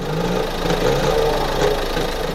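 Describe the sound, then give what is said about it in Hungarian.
Heavy transport truck engines rev up in a courtyard, a dense mechanical drone with knocking and vibration, loud and continuous with no voices. “Az udvaron felbőgtek a szállítókocsik motorjai,”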